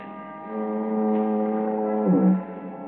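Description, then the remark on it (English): A foghorn down at the point near San Quentin Prison moans in the distance in fog, one long, low, steady, monotonous drone that holds throughout, swelling slightly and wavering briefly near the end, amid cool quiet. No voices. “It's cool, quiet, except for the monotonous moan of the foghorn down at the point near San Quentin Prison.”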